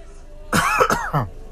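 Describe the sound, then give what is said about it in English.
A harsh cough in a few rough bursts lasting about a second, with a raspy throat-clearing quality, rising sharply out of a quiet background. “Excuse me while I cough.”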